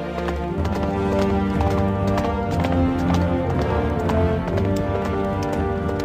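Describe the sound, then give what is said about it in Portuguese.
Horse hooves clip-clop in a steady, continuous rhythm throughout, prominent, as riders on horseback journey west, layered over a dense musical or ambient background with no talking. “Os dias passam, vocês aos poucos vão se recuperando, e quando já se sentem completamente curados, vocês montam em seus cavalos e continuam a sua jornada rumo ao oeste.”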